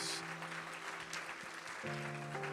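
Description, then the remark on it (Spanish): An audience claps loudly and steadily, giving applause to the Holy Spirit, a dense wash of applause, while sustained organ or keyboard chords hold underneath and shift partway through. “Alguien le da un aplauso fuerte al Espíritu Santo de Dios.”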